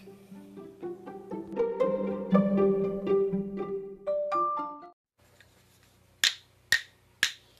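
A bright, tuneful melodic phrase plays for about five seconds, then after a brief pause come three sharp, evenly spaced hand claps, with no voices; the instruments used include drumsticks, jingles, a small bell and hand claps.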